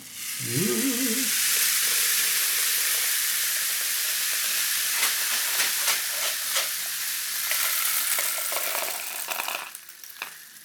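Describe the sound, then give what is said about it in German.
A rainstick pours out a dense, steady trickle like light rain for about ten seconds, fairly loud, with scattered sharper clicks toward the end and a brief low squeak at the start. “Wer nicht weiß, was ein Regenmacher ist, na, genau, so hört sich das an.”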